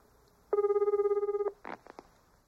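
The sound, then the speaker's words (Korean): A telephone rings once, a steady warbling electronic tone lasting about a second, followed by a few brief rustling clicks as it goes quiet. No one speaks. “아, 그러면 이짝 전화 좀 쓸게요.”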